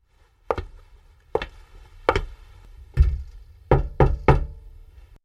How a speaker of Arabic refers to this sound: كانت هذه هي المرة الأولى التي يطرق فيها باب الجيران منذ أن انتقل للسكن هنا قبل شهر واحد.